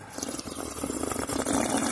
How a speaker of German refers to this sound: Man muss sagen, sie will gerade was erzählen und das erste, was sie macht, ist, sie nimmt einen Schluck Wasser, sodass sie auf gar keinen Fall mehr erzählen kann.